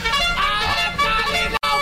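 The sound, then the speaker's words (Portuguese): A loud, brassy blare of trumpets sounding together in sustained, harmonically rich tones, holding steady before a brief cut and then resuming, with no talking over it. “agora iremos é as notícias dessa sexta-feira que soem as trombetas do Apocalipse.”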